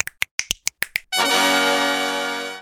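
About seven crisp finger snaps in a quick, steady rhythm, clear, followed by a loud sustained musical chord that rings out to the end.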